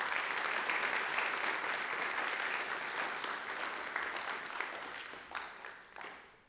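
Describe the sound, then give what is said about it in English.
A crowd at SBU claps in a sustained round of applause for the coaches, dense and steady, with many overlapping hand claps that gradually thin out and fade toward the end. “So, firstly, can we just give a big, massive round of applause to every single coach that's coached you throughout your journey at SBU?”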